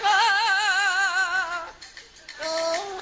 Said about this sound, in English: Please find a news item from Taiwan on a parrot that can sing whole phrases of classic Chinese songs.